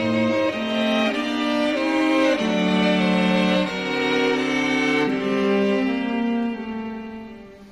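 A string ensemble of cellos and violins plays shimmering tremolo chords, the bowing rapid and continuous, shifting harmony a few times at a full, steady volume before easing off slightly at the end. No voices.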